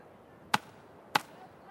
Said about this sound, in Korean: 마침내 전당포 앞으로 돌아온 그는 포장된 길바닥을 지팡이로 두어 번 힘차게 쿵쿵 찍으며